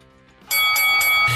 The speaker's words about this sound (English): Ring that bell.